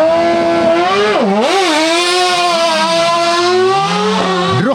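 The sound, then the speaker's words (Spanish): A loud, high-pitched Formula race car engine revs continuously at the start line, its whine rising and dipping in sharp swoops as the throttle is blipped, with no talking over it. “los motores del Fórmula, el motor del Fórmula de Pablo Rey ya está en”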